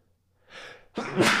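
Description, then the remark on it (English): A small sneeze: a soft breathy intake followed by a short burst and a sharp hissy release, heard alone with no talking. “Little sneeze there.”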